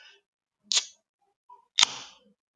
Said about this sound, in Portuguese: Vou abrir aqui a primeira cerveja em sei lá quanto tempo mais de seis meses.